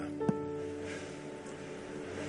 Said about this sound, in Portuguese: Isso é chuva, é? Glória a Deus, glória a Deus chuva de bênçãos teremos. Lembra disso, irmão? É. Vamos orar. Ó Deus, nós recebemos essa chuva como expressão da tua bênção sobre nós.